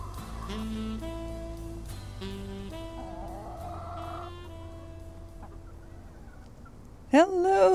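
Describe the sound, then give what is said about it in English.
A gentle tune of sustained tones plays for several seconds, then stops, and a loud chicken gives a short burst of warbling clucks; chickens kept in a summer garden in the Netherlands. “these are my chickens in my summer garden in the Netherlands”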